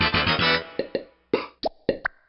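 A quick run of hollow lip pops, made as sounds for a TV main title theme, first crowded together in a busy burst, then spaced out into a loose, bouncy rhythm of single pitched plops with short gaps between them.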